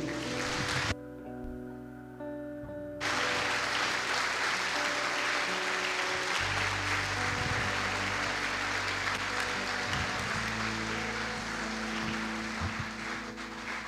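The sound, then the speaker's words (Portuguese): An audience at a church service claps steadily and loudly for the Lord after a prayer, over ten seconds of a dense wash of many hands, with sustained organ or keyboard tones underneath; the music briefly drops out near the start. “Se você crê nisso, aplauda o Senhor.”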